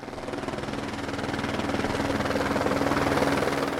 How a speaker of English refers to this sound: In other buildings news, there is some plant electricity work in the area the helicopter flew over our site the other day to survey the infrastructure of the area.